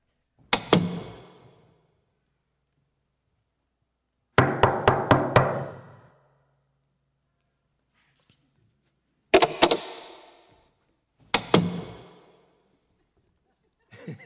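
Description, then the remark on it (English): Someone knocks on a door in four separate bursts, a quick double rap, then a rapid run of five knocks, then two more short sets, each crisp with silence between. “Have you ever thought about all the different kind of knocks that there are in life?”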